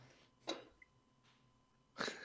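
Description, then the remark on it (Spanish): A dog, Leia, gives two short, sharp barks about a second and a half apart, fairly quiet, with no one speaking over them. “Habría que cada vez que ladra la ley, habría que tener un botón ahí con este, fuego, terremoto, hippies.”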